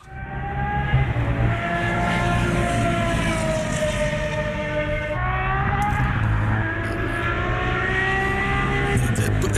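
An Aston Martin Valkyrie hypercar's high-revving engine howls continuously on the Silverstone circuit, its pitch rising and shifting through gear changes, loud and sustained with no voices.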